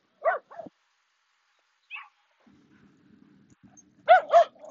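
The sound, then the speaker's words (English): A passing woman's dogs bark and yip in short, sharp bursts: a quick pair, a lone yelp, then two louder barks close together near the end, over a faint low rumble. “she doesn't look like a dog owner that wants to have the dogs uh, say hello.”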